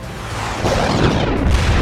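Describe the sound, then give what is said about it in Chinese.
A loud, heavy bang as a dark serpent slams a man's back against a throne, a deep booming crash that rumbles on for nearly two seconds with no voices. “砰的一声巨响，暗蛇把萧逸的后背结结实实的撞在王座上。”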